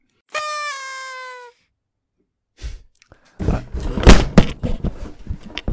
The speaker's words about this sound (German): Jetzt hast du einen guten, guten Soundeffekt hier. Einmal Mikro auf den Boden knallen. Wir, wir können die Folge einfach mit einem Mic Drop beenden.